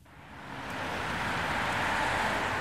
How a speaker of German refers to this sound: Frankfurter Allee im Berliner Stadtzentrum. Rechts und links tobt der Verkehr auf sechs Spuren.